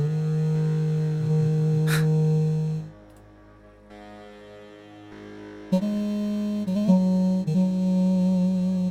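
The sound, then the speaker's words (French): Processed, augmented grand piano tones from a software piano instrument being demonstrated: sustained, droning harmonic notes with an electronic edge, a brief quieter dip in the middle, then a louder swell of layered tones. “C'est marrant les sons du piano là, augmenté de grand piano.”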